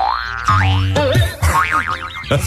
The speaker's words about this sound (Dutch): een stuiterbal. Gewoon, hij, ja, hij, uit, eerst zo uit zijn oog en vervolgens zo stuitert hij hem tegen het raam aan. En weer terug.